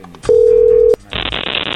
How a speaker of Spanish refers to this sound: Bueno, ahí se está marcando.